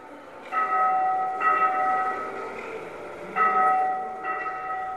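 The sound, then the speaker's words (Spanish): Church bells ring out in a steady, overlapping peal, played from a loudspeaker hung from the ceiling of a museum on a former leprosy island, several strikes sustaining clear metallic tones with a hum of background ambience and no voices. “Uno de los sonidos son las campanadas de la iglesia.”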